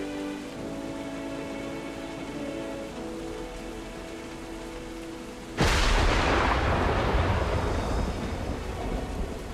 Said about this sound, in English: An enormous crash of thunder resounded, and a flash of lightning split the sky.